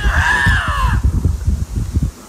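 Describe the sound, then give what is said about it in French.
A lynx gives a single loud, drawn-out wailing cry that slides downward in pitch for about a second, followed by a stretch of low, rhythmic rumbling pulses. “Fait ça, c'est un lynx.”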